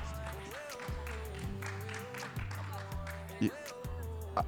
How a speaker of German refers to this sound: Brr, brr, brr, brr, brr, und da wird geklatscht.